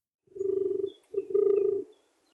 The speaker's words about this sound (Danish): sagde duen og kurede.